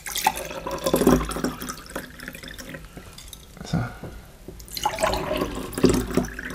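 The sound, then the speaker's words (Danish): Water pours into a glass in a few splashy bursts, trickling and gurgling for several seconds, with a brief word spoken partway through. “så jeg har et øh, glas ja, vand til os, hvis du vil have.”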